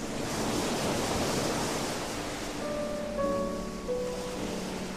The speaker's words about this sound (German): und immer wieder ein Meeresrauschen, das wie ein hinzukomponiertes musikalisches Element wirkt.